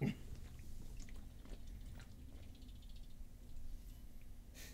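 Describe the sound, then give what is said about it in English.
Wet chewing of food with irregular crunchy and squishy mouth sounds over a low steady background hum, continuing for several seconds. “Jeez, that was loud. Tasty is what that was.”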